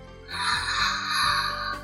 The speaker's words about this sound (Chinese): 小猪们打着大大的哈欠，爬了起来。